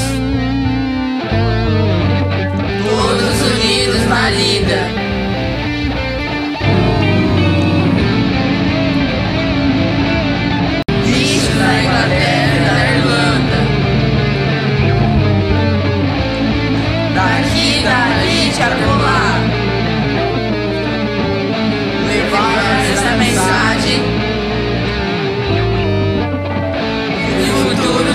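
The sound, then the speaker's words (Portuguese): A sung song plays loudly and continuously, with vocals carried over a dense, driving band accompaniment that stays at an even level from start to finish. “Agora eu vou deixar vocês escutando um trecho dos Bichos da Inglaterra, uma canção onde o porco major cantou para o restante dos animais.”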